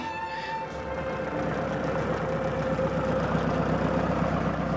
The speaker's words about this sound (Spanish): Un auto. el auto de Andrés? ¿De dónde viene?